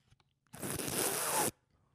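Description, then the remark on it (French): A single noisy slurp of wine drawn in with air, a steady hissing gurgle lasting about a second before stopping abruptly, with no talking. “Puis après, tu reprends un autre, une autre gorgée. Est-ce que je dois faire la deuxième gorgée Faut que je dois faire le même bruit encore T'enlèves toujours l'air, regarde.”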